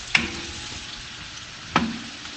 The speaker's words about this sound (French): les petites pommes de terre qui sont encore au four avec les carottes, j'adore ce bruit, le crépitement.